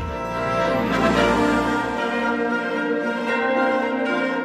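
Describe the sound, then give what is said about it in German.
Big Ben clock bell in London chiming loudly, with rich, sustained ringing overtones that swell and linger across several seconds, and no voices. “Und der Big Bang hört zu.”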